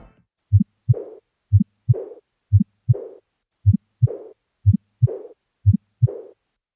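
A steady heartbeat of six paired thumps, each pair followed by a soft, blowing decrescendo diastolic murmur of aortic regurgitation that fades before the next beat, clear with no talking.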